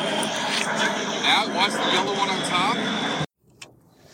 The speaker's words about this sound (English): Oh, wait airplanes.